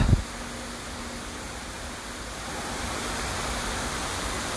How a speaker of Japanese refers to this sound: 本当にちょっと思ったのがこういう水の音をなんか久々に聞いたなというマイナスイオンとかちょっと浴びたいなと思っているので